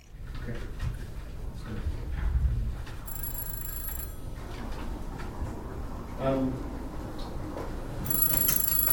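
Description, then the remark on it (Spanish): An old-style telephone bell rings in two bright bursts several seconds apart at a police station at night, over a steady, noisy background with faint murmuring. “En el cuartel de policía es una noche normal hasta que el teléfono suena.”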